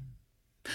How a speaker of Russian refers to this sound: А, коллега, коллега, тема дня, я сейчас зевну.